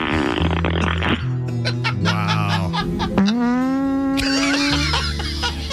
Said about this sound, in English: I'm just gonna try this. I'm just gonna play fart sound effects